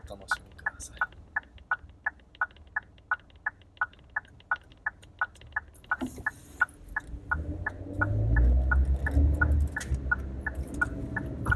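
A car's turn signal ticks steadily and crisply, about two clicks per second, throughout. Partway through, a low engine-like rumble swells underneath while the clicking keeps its even rhythm.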